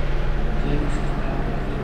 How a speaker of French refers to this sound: L'avion. Son hélicoptère au-dessus, là. il nous protège ou il nous inquiète